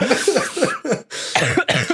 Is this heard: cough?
yes